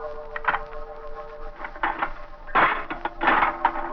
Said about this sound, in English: I opened the door.